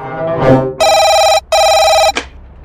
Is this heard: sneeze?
no